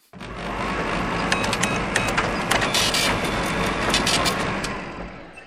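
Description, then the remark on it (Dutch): An office photocopier, reported as broken but found to be working, runs with a steady mechanical whir and hum, overlaid by a flurry of clicking, ticking parts and brief high rattles throughout. No one speaks. “Het schijnt dat onze kopieermachine stuk is.”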